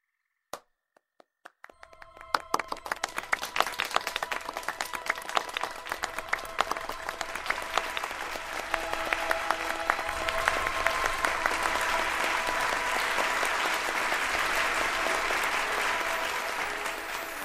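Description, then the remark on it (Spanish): Scattered claps at first quickly swell into sustained, full audience applause at a Peter Pan performance, the audience clapping to show they believe in fairies and save Tinker Bell; it keeps building and stays loud and dense until the end, with no talking. “Si creen, aplaudan, por favor, para salvar a mi querida campanilla.”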